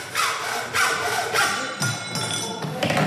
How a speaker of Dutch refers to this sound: Nou, u wordt flink gezaagd bij de timmerafdeling.